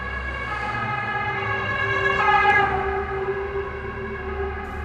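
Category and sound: vehicle, ambulance siren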